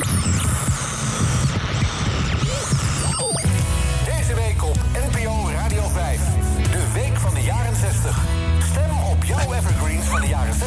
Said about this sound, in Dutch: En dan nu even het tweede uur, dan inmiddels staat hij op mono. Hoe anders klinkt dan die uuropener? Mm Eens even luisteren.